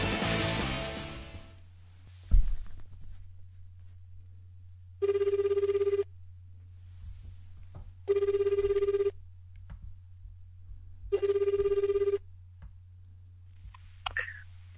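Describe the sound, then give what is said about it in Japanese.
A telephone ringback tone sounds on an outgoing call made to greet a fellow agricultural podcaster: three evenly spaced one-second rings separated by about two seconds of silence, over a steady low hum, with a brief burst of noise at the start. “なので今回からいろんな農業ポッドキャスターの方に電話でご挨拶しようかと思います”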